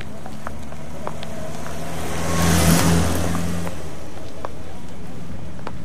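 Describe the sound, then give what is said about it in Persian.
A bus's engine rumbles and revs as it approaches a person standing and waiting for it, swelling to a loud peak midway before easing off, with steady low engine tones and street ambience throughout. “اتوبوس نزدیک می شود و تو به نوک کفش های سیاحت خیره شده ای.”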